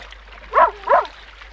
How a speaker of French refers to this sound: C'était le chien du navire. Il avait survécu au naufrage, ainsi d'ailleurs que les deux chats du bord.